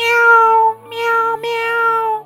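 A cat meows in a couple of long, drawn-out, steady cries, fairly loud and high-pitched, separated by a brief pause, with no talking.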